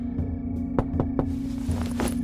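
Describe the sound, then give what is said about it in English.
Several irregular knocks sound against a steady low hum, some sharper and louder than others, spread across a couple of seconds with no one speaking. “So when I heard the knocking on the first night, I answered back in the politest tone I could muster.”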